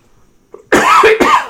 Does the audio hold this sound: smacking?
no